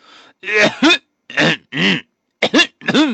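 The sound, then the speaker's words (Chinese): A voice imitates four or five men coughing in unison as they walk past a bank: around six loud, rasping, throaty bursts, some in quick pairs, separated by short silences, with no talking. “开咳嗽起来了，我一看，这不对暗号呢吗？”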